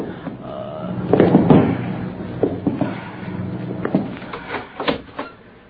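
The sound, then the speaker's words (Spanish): A door being opened: a rattling clatter of the latch and handle, followed by a string of sharp knocks and clicks of varying loudness, with no voices. “Voy a abrir la puerta”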